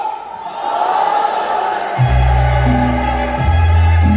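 A loud, dense crowd roars and cheers at a live show as a Mexican singer performs ranchera songs on stage. Partway through, strong sustained low tones from singing and music rise beneath the steady audience noise.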